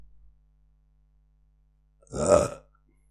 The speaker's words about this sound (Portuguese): Perdão. Peço imenso perdão. Eu arroto desta maneira extremamente má porque os meus pais, quando eu era bebê, não se lembraram de me dar tapinhas nas costas. Então eu não sei arrotar.